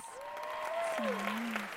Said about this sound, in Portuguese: salva de palmas.